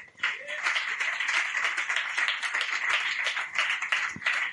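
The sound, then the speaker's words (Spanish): An audience at Poetry Slam Gijón applauds steadily, a dense wash of many hands clapping that stays at an even, fairly loud level throughout without any talking over it. “Un aplauso para todos vosotros, por favor.”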